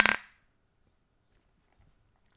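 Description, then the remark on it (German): A single bright clink of beer glasses knocking together in a toast, fairly loud, ringing briefly before falling into silence. “Aber du kannst den Schmerz natürlich in kaltem Bier ertränken. Und das funktioniert immer äußerst gut. Prost.”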